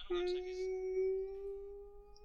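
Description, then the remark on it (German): A voice hums a single sustained drone note that slowly creeps upward in pitch, imitating a swelling suspense score like the one in the film The Dark Knight. It is steady and fairly loud, lasting about two seconds with no talking. “Wo im Hintergrund, wenn diese Spannung ansteigt, dieses.”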